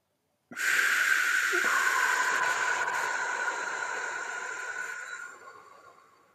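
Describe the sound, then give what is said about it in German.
A long, slow exhale blown through a straw during a guided breathing exercise, a steady airy hiss with a faint whistling tone that holds for about five seconds before tapering off. No one speaks. “Und dann ganz langsam durch den Strohhalm pusten wir aus.”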